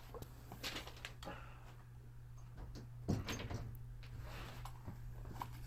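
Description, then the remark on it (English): A room door is pushed shut, with a single muffled thump near the middle and some faint shuffling and handling noises around it, over a steady low hum. No one speaks. “Let me close my door.”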